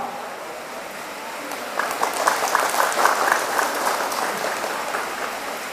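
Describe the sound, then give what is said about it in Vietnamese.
Applause from a group rises after a couple of seconds, dense overlapping claps continuing steadily at moderate loudness until the end, over a soft background hiss. “hãy dâng cao trang vỗ tay để thể hiện cái tinh thần sẵn lòng”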